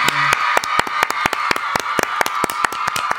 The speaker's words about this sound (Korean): 저희가 또 아. 상을 드렸으니까 또 부상을 음. 준비했습니다. 오, 예, 부상은 뜨거운 박수와 환호 드리겠습니다.